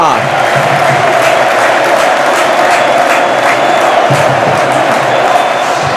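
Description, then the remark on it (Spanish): A packed crowd at the Castalia football stadium roars in celebration of a goal scored just before the final whistle, a dense, sustained wall of cheering and shouting that stays loud and steady throughout, with scattered whoops rising above the din. “Escuchamos Castalia te pregunto, mano, pero mira Castaña cómo suena.”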